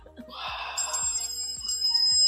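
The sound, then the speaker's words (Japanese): A telephone rings with a bright electronic warble, repeating in short regular pulses about every half second, steady, with no one speaking over it. “電話が鳴っちゃったわ。”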